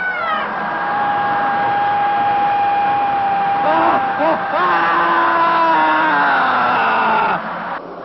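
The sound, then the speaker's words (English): Loud, sustained screaming and wailing during the screaming phase of dynamic meditation fills the whole stretch, long held cries sliding up and down in pitch, several voices overlapping, continuous with no spoken words. “The next phase, the screaming phase of dynamic meditation, feels like when you finally had an opportunity to throw a tantrum when you were a little kid.”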